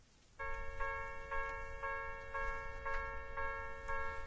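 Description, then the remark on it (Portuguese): A railroad crossing warning bell clangs steadily, about two strikes per second, its bright ringing tone sustained between hits, over a low background rumble. “Esse é o som de alerta em um cruzamento.”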